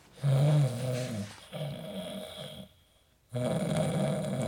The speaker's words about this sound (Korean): 그래서 그날도 창가 자리를 예약하고 열차에 탑승했는데요. 제 옆자리에는 이미 서울역에서부터 타고 오신 듯한 할아버지 한 분이 작게 코를 골며 주무시고 계셨죠.